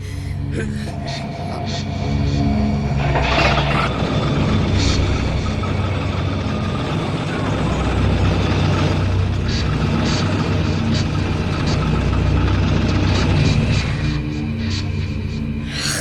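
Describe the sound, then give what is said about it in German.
A car engine that had stalled turns over and catches after a second or two, then runs at a steady, loud rumbling idle for the rest of the time, continuous. “Warum geht die Kiste nur mal wieder aus?”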